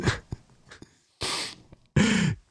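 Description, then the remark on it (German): Loose parts rattling as a flat Advent calendar package is shaken: a few quick clicks, then two harsh, gritty bursts of rattling, each lasting about a third of a second, fairly loud. “Übrigens, äh, als ich diesen Adventskalender äh, das erste Mal so in die Hand genommen habe und äh, so begutachtet habe, dachte ich mir, also eine Kamera, die, die so klingt, wenn man sie schüttelt.”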